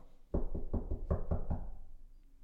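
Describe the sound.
A quick run of about seven evenly spaced knocks, acted out by a speaker imitating a woman knocking on a bus, fairly loud, lasting just over a second before fading into quiet room tone, with no talking.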